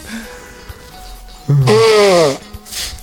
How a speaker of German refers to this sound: Oh, ich muss mal kurz die Nase putzen. Das ist doch zu tränentreibend hier.